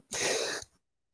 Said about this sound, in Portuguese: isso, saúde e saúde. Pronto, eh, duplo saúde. Ah, preciso do nome, eu já falo do Garuba enquanto eu acabo de espirrar, desculpa lá.